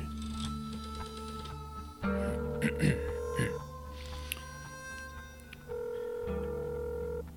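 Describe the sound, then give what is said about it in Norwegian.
A telephone number is dialed in a dark office: steady electronic tones shift pitch in a few distinct steps, with brief clicks and beeps in between, heard fairly clearly over a low hum. “Han grep telefonrøret og slo et nummer.”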